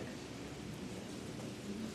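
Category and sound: nature, rain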